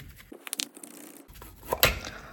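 Meat being worked loose from a tin can: a quick series of wet, scraping, tearing bursts, then a pause and a louder squelching slide as it comes free. No one speaks.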